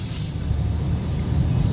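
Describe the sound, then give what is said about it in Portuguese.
A steady, low rumble of traffic on a busy avenue at night, engines droning continuously with a faint hiss of passing vehicles, unbroken, with no voices. “A menina pediu pediu carro aqui numa avenida movimentada. Movimentada assim, já é de, de noite, né?”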